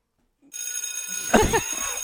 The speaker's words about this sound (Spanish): Aunque he decir que mi efecto favorito es este. A mí me gusta la, la campanilla de cole.